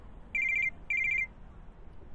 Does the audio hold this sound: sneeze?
no